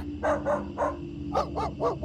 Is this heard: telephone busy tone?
no